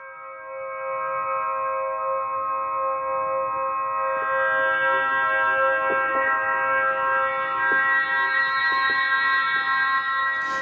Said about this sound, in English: For those of you who don't know, an Aeolian harp is a stringed instrument that's played by the wind. You don't interact with it at all, except maybe to turn it into or away from the wind. That's what you're listening to right now.